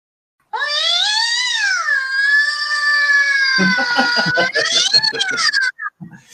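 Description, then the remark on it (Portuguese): A black cat that has wandered onto the playing field during a match lets out one long, loud, wavering yowl lasting several seconds, rising and falling in pitch before breaking off, with some rough, choppy noise underneath toward the end. “Acabou de aparecer o gato lá.”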